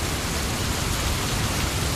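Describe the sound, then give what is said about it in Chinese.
A steady, dense hiss of sudden heavy rain pouring down during a concert, without a break, loud and even throughout, with no voices or other distinct sounds. “哎，下雨了。 对啊，怎么一下子下了这么大的雨啊？”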